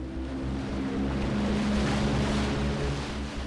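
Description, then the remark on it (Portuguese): A rubber dinghy's outboard motor drones steadily and loudly on the water, its low engine hum mixed with rushing water and wind noise throughout. “Abandona o seu posto de comando na Orion e mete-se num bote de borracha.”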